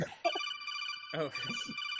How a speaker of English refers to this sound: that's my phone.